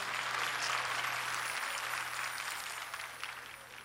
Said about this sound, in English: Clap your hands and take your seats.